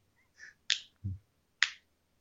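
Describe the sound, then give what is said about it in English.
Two crisp finger snaps about a second apart, with a softer brief tap before the first and a dull low thump between them; no talking. “Listen, I saw West Side Story last week, and I've just been like snapping my fingers ever since.”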